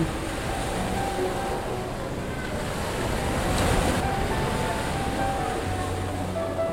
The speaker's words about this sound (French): J'aimerais sortir à nouveau, m'asseoir au bord de la plage et entendre le bruit de l'océan qui claque doucement contre le sable.